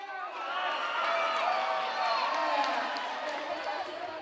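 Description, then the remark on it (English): Fans packing the bleachers and balcony of a gym cheer and shout continuously at a robotics competition as the timer counts down and robots move around a 12 by 12 field, a dense wash of many overlapping voices holding steady and fairly loud for several seconds. “The fans cheer as the timer counts down and the robots scurry around the 12 by 12 field.”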